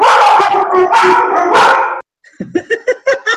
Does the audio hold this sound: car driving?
no